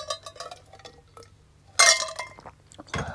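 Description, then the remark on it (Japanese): Ice cubes clink and rattle against a glass as more ice is put in for drinking soda water, with a sharp bright burst partway through, another clatter near the end, and soft small taps in between. No one speaks. “なんかだから、それ聞きながら、こうね、氷をまた入れて、こう炭酸水を飲むっていう。”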